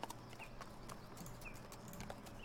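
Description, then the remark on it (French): A horse's hooves clip-clop at an unhurried, steady walk, the sharp knocks repeating evenly over a low rumbling background of a horse-drawn caravan rolling along a dry dirt path. “Bah écoute, la roulotte est en marche.”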